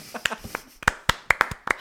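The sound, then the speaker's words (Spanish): A short burst of hand clapping from a few people applauding a pun: about eight sharp, irregular claps over two seconds, with faint voices murmuring underneath. “los juegos de palabras se aplauden.”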